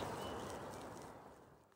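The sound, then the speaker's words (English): Soft birdsong, including what sounds like gentle cooing, drifts over a steady hush of outdoor background noise for a couple of seconds, with no one speaking. “And I'll sign off properly. With birdsong.”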